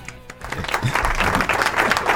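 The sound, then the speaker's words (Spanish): A burst of canned applause played at the press of a button to welcome a guest, many hands clapping in a dense, steady crackle that swells slightly and holds at a fairly loud level, with no talking over it. “Aplauso, por favor, Maxi. Agarra el botón, hijo.”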